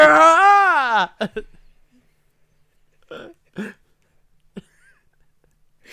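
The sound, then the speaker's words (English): A voice imitates a thin, feeble horror-movie scream: one wavering, sustained wail lasting about a second, fairly loud, followed by a few short, quiet vocal bursts and near silence. “you sound like a Halloween decoration that's running on a battery.”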